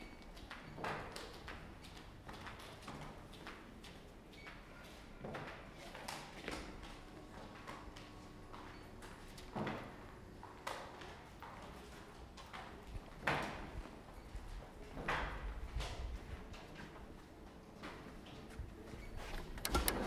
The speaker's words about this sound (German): Was ja sehr praktisch ist, wenn man viele Bücher in der Hand hat, dass die Türen automatisch sind.